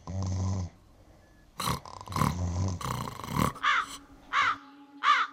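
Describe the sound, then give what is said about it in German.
Harsh, raspy corvid caws ring out in a ragged series of about seven calls, loud, each a short hoarse burst with brief pauses between, over a quiet background. “Rabenvögel und ihre Feinde.”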